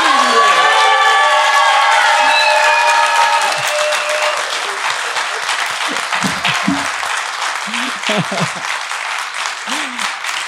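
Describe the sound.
Sustained audience applause fills the whole stretch, dense and loud, with whistles and cheering voices rising at the start before settling into steady clapping.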